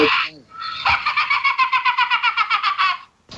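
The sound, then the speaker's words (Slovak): A hen clucks in a fast, steady run of about fifteen sharp pulses, following a short opening squawk, loud and clear with no talking over it. “ako, tá, ako tá sliepka”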